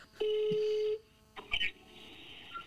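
A loud, steady telephone tone holds for just under a second, then stops, followed by a few short, clipped dialing beeps and faint line noise.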